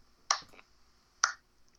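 Two sharp, crisp claps spaced about a second apart, a slow and deliberate clap with quiet between the hits and no talking.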